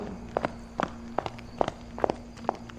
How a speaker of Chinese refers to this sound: 奇怪，怎么有脚步声？我家是小巷子，应该不会有人啊。